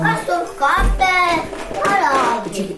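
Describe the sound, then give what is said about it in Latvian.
Four young children play noisily at home, their high-pitched voices shouting and squealing in a lively, overlapping stream, with a brief thump partway through. “Pēc brīža troksnis piepieši aizdomīgi pieklus un visi ķipari kaut kur pazūd.”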